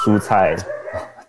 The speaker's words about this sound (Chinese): 我家的狗在叫， 没问题。 对，对他好像不太同意。对，就是 狗食也涨价， 啊，对，狗食也涨价，他在抱怨的。